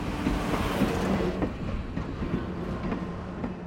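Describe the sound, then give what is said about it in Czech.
A freight train carrying potatoes rolls steadily along the tracks, a continuous heavy rumble punctuated by rhythmic clacks of wheels over rail joints, loud, with no voices. “že prý vlakem a že prý tím, který veze brambory.”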